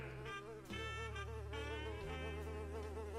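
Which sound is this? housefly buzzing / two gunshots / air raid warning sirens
housefly buzzing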